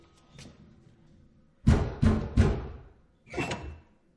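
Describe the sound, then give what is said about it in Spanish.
A house door opening: three loud, heavy wooden thuds and rattles in quick succession, a short pause, then one more, against a quiet background with no talking. “Lizzie mira inquieta hacia la puerta de su casa.”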